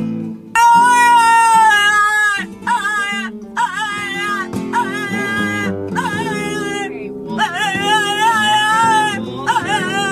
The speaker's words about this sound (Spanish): ahí vieron cómo Walter, el perro, el perro español, chico, canta sin temor a Dios.